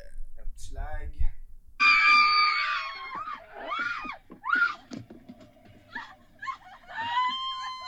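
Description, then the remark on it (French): High, strained vocal cries and wails rise and fall in uneven bursts, loud, with sobbing breaths and shrill outbursts breaking through for several seconds, from people crying after a car accident. “pleurs, des rires. Accident de voiture.”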